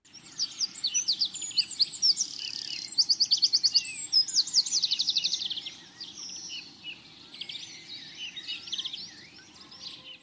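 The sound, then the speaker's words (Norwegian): Bright, rapid birdsong with trilled, repeated phrases and quick chirps, loud, continuing for the whole stretch without any voices, over a soft low background rumble. “Fuglesang er ikke bare pent å høre på.”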